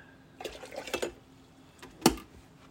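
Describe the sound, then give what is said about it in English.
Tea, a Haru no Yuki Sencha and Tencha blend, pours briefly into a cup with a bubbling, gurgling trickle, then a single sharp clink follows a moment later. Fairly quiet overall, with no talking. “Sorry, I'm making some, making some tea right now.”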